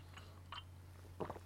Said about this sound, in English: I'm going to have another sip of coffee. To, another, see, I'm doing it again, another sip of coffee.